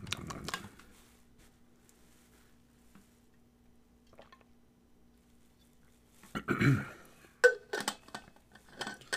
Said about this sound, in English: Uh, hold on. I gotta get some water here. ASMR water drinking.